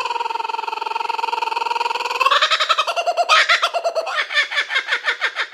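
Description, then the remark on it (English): A loud bird call: a steady buzzing trill for about two seconds, then a rapid series of sharp, rhythmic chirps and squawks that repeat quickly until the end. “All right, smack the bird.”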